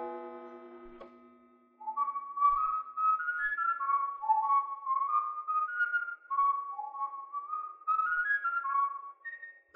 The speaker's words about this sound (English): I thought I heard someone downstairs. It was whistling. Listen. You hear that?